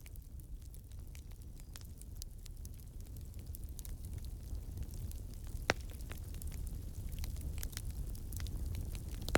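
A campfire crackles steadily, with scattered sharp pops and snaps over a low, rumbling bed of flame noise. One louder pop stands out midway, and no one speaks.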